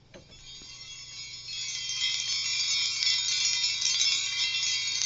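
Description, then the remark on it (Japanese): A hanging chime of spoons and forks that were heated in fire and hammered flat jingles continuously, a dense bright metallic shimmer of many small clinks that swells louder after the first couple of seconds, with no voices. “はい、いい感じの金属ですけどもこれはですね焼いたスプーンとかフォークを叩いて潰したものがぶら下がっております。”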